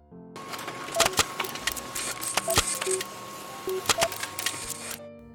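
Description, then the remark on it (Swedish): A printer prints out a written Minecraft story, running for about five seconds, a steady mechanical whir punctuated by sharp clicks and brief tonal whines as the paper feeds through, moderately loud with no talking. “Ja, då ska jag få nöjet att läsa upp Aidas mästerverk som hon har skrivit ut här till oss.”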